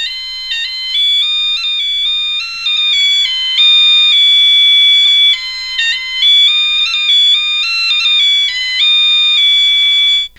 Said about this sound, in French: Alors, je vais vous faire écouter euh, le biniou.